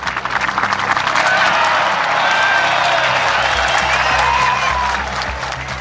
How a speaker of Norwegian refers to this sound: Foran publikum og en hel verden som fylte med på TV-skjermene, tok da Israels statsminister og PLOs leder hverandre i hånden til full applaus.